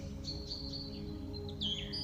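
Tits chirp in the distance in a pine forest in short, high, thin notes, a few quick calls followed by a brighter, sliding chirp near the end, over a steady low humming background with no voices.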